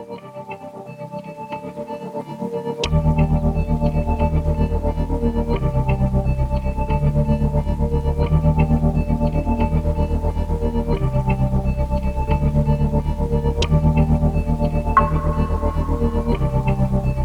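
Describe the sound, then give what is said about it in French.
A musician's latest song, released in May, begins after a brief quiet intro, then a steady full band kicks in with a driving bass line and layered synths, heavily processed with effects, playing continuously without vocals yet. “puisqu'on va écouter son dernier titre sorti en mai”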